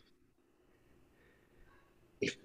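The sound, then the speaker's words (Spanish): A single short, sharp sniff sounds near the end, breaking an otherwise quiet stretch of faint background hiss. “Escucho un sniff.”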